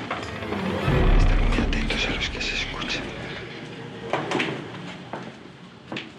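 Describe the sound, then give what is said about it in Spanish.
A door that had closed earlier opens by itself with a drawn-out mechanical creak and scattered clicks and knocks from the latch and hinges, moderately loud, over a low rumbling background. “La puerta que antes se cerró, ahora se abre.”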